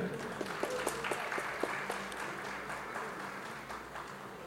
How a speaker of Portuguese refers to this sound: Aplausos